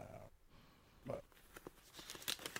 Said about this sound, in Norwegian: Bare bladre litt der, sånn. Der, ja. Litt rart at man blar over til første side, men det er greit.